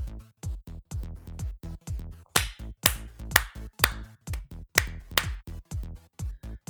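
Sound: hand clapping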